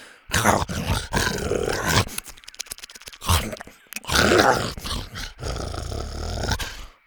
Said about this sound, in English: With one last gaping bite, the spider's long, hairy legs disappeared behind Buck's teeth. The T Rex roared triumphantly.